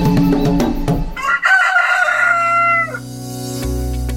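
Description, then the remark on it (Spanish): A rooster crows once, loud, its long harmonic call rising and then trailing off, with low hum and some clucking in the background before and after, heard as the countryside starts its day, opening ICA Comunica Radio in Colombia. “Así, con el canto del gallo y los sonidos de la naturaleza que nos indican que el campo se pone en marcha, les damos la bienvenida a ICA Comunica Radio”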